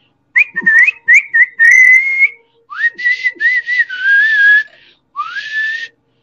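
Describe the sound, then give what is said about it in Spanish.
A person whistles a wavering, eerie tune in several bursts: quick rising notes, then longer sliding tones that swoop up and dip, fairly loud with short pauses between phrases. “cuando de repente de silbido, pues solo silba diciendo, no sé con lo que dijo, pero solo dice sucedió como esto.”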